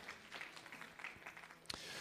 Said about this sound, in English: Let's give a round of applause to our Sprouts workers as they serve our children today.